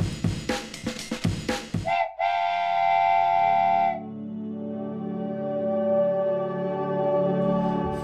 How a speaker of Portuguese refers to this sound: Se prepara que o trem vai sair. Na verdade, o trem já saiu